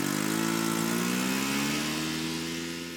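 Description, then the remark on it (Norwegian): A snowmobile out on a trip in open nature runs steadily at a high, buzzing pitch, its harmonic drone easing slightly lower and quieter over three seconds. No voices. “Ut på tur i Guds frie natur på snøscooter.”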